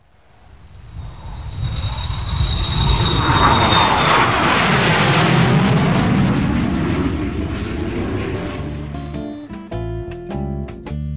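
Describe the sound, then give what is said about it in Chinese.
A jet airplane on a flight to Cambodia roars past, its broad rushing noise swelling for several seconds with a sweeping pitch shift, then easing off as a few musical tones come in at the end. “做完攻略的话，就乘飞机过去了。”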